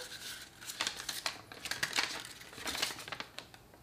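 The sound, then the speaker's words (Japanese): Rustling and crinkling with scattered sharp clicks and taps as the small plastic case of a tiny recorder, about the size of a large ballpoint pen, is opened and its contents, the instrument and a fingering chart, are handled, irregular and continuous with no talking. “とにかく小さいあのー多分ちょっと大きめのボールペンぐらいの感じです、えー、ケース開けると本体と”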